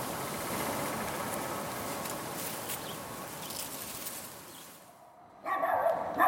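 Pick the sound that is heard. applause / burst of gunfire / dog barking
dog barking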